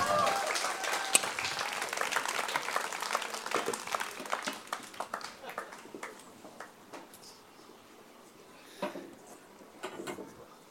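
An audience applauds with dense, crackling claps that start strong and gradually thin out into scattered individual claps before fading, with a couple of last stray claps near the end.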